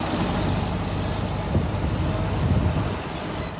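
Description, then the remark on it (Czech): A heavy tow truck (recovery vehicle) rumbles up loud on a motorway closed by military police after a crash of military vehicles, its engine droning steadily while the sharp hiss of air brakes sits on top. No one speaks. “Vojenská policie na chvíli uzavírá celou dálnici, přijíždí vyprošťovací auto, s ním i náhradní část posádek.”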